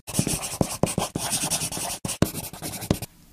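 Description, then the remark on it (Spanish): A pen or pencil scratches steadily across paper in quick strokes with brief pauses as notes are written by hand, ending in near silence; no voices. “Pues apuntamos lo que hemos aprendido de Jesús.”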